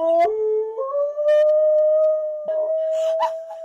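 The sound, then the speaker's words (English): Dogs howl at each other over a FaceTime video call in long, sustained, wavering notes that step upward in pitch and hold steady, fairly loud, with a few brief yips breaking in near the end. “they howl at each other and bark, and and uh, because these girls were you know such good friends, being roommates, they've made sure the dogs were able to stay friends”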